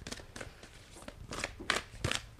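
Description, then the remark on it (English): Cards from a pink, second-edition Siren of Songs tarot deck by Lady Moon Co shuffle and slide as a card is pulled, with a series of quick, crisp papery swishes and soft flicks, about half a dozen bursts in an uneven rhythm, fairly quiet with no talking. “start by pulling a card like we like yes.”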